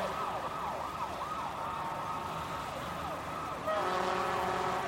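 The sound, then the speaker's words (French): Dense city traffic rumbles continuously while a wailing siren sweeps up and down, then loud, sustained car horns blare near the end, all busy throughout. “Il y avait de plus en plus de circulation, de klaxons, de bruit.”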